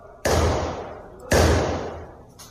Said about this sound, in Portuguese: Vamos lá, ó os tiros. Gente, é isso que você acompanhou aqui foram tiros. Eu vou, eu vou soltar de novo esse trecho dos tiros, ó. Isso ecoou é na cidade toda.